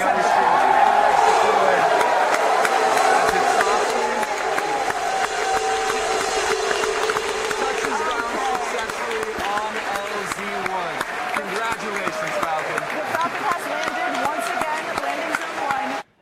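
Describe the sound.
A large crowd cheers and applauds loudly and continuously, a dense roar of clapping and shouting voices that holds steady for the whole stretch before cutting off abruptly.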